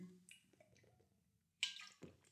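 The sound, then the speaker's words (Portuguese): A quiet sip of water, with soft wet slurping and a small swallow, then a brief louder gulp near the end. No one speaks. “Bom, vou dar aqui um golito de água.”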